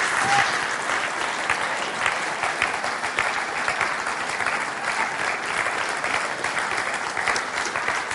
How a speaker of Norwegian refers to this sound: Jeg kunne skrape sammen til en applaus på det.